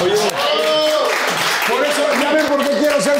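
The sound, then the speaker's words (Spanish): A burst of applause for a guest songwriter, a dense steady clatter of clapping mixed with loud whooping and cheering voices, running continuously for about three seconds. “Entonces, un aplauso”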